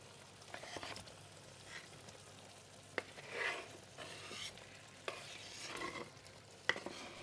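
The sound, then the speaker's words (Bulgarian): Soft, steady sizzling of chopped tomato chunks frying in a pan, with periodic scraping and clinks as it's stirred with a utensil, fairly quiet, no talking. “Кръгъл и червен, сладък, нарязвам го на купчета и добавям и негов тигана.”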